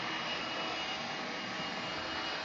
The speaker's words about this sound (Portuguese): E claro, eu vou ligar o aspirador aqui, então eu vou falar perto do microfone.